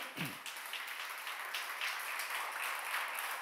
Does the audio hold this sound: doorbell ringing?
no